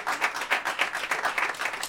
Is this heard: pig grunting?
no